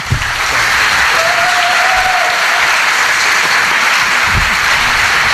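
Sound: audience applause ovation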